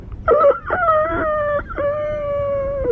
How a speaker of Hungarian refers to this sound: Távolról egy kutya ugat.